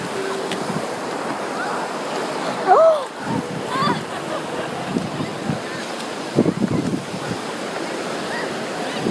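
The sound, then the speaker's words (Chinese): Ocean waves wash continuously onto a seashore in a steady, broad roar mixed with wind buffeting; the seawater is blue-green and a little cold. Faint voices surface briefly now and then beneath the surf. “这是我在大海边听海浪的声音了吗？”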